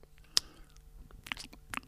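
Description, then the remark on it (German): A voice imitates someone smacking while eating: noisy, wet chewing with a few sharp lip smacks and squelchy mouth clicks, fairly quiet, spaced irregularly over a couple of seconds. “Ja, oder so, weißt du, was ich auch nicht mag, wenn jemand so schmatzt?”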